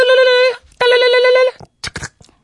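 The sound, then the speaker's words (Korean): A telephone rings twice, each ring a steady, buzzy, mid-pitched tone lasting about half a second with a short gap between. A few brief voice sounds follow the rings. “아따 전화 늦게 받고 뭐다냐.”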